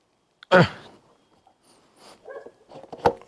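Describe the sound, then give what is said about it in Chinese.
A dog gives one loud, sharp bark, followed by quieter scattered yaps and a brief whine, ending with another short bark. “啊，赶快走吧，狗狗要生气了。”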